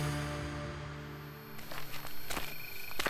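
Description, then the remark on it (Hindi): A low sustained hum gives way to a series of footsteps, several crunchy steps in an uneven walking rhythm as a man walks outside in the evening, growing slightly louder toward the end. “मेरे कदमों की आहट सुनकर वो मुझे देखकर मुस्कुराकर बोली”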